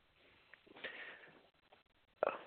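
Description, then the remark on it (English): A phone line breaking up: muffled, choppy bursts of garbled noise with brief dropouts and silent gaps, ending in a short crackling burst. Quiet and thin, with no clear speech. “My phone cut out.”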